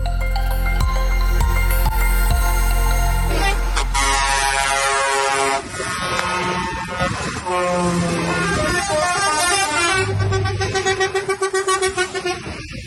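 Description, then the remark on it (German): Many loud truck air horns blare at once in a dense, overlapping chorus, sustained and layered with engine rumble, some horns pulsing in rapid bursts toward the end, as hundreds of truck drivers drive in a large protest convoy to Rotterdam, Netherlands, on a Sunday. “So hörte es sich in den Niederlanden an, als am gestrigen Sonntag Hunderte von Lkw-Fahrern nach Rotterdam zu einem großen Protestzug fuhren.”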